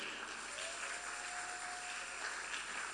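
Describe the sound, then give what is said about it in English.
A crowd claps steadily in praise, a dense, continuous wash of many hands throughout, fairly soft, with a faint sustained tone briefly running underneath. “Clap your hands and give your praise, somebody.”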